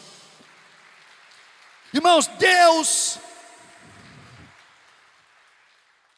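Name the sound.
audience applauding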